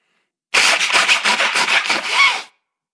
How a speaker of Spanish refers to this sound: Oye, espera, antes de que hables de eso, me voy a sonar. Si esto no se edita, disculpen ustedes, pero tengo muchos mocos.